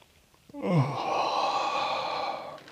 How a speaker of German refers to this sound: Ein Strecken, ein Gähnen. Ein Schulternkreisen vielleicht oder Nacken Kopfbewegungen. Unterkiefer entspannen, gähnen,